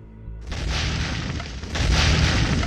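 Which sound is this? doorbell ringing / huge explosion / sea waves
huge explosion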